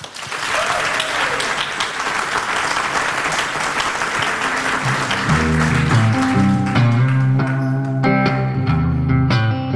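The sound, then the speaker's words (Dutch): Loud, dense applause from an audience fills the first half, then tapers off as tonal music with sustained notes fades in and takes over. “dames en heren, geef ze een applaus.”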